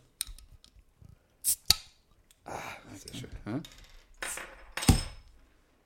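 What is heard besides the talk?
beer bottle being opened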